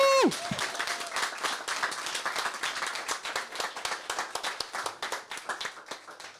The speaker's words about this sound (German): Also noch schnell einen fetten Applaus aus Dalis. Woo!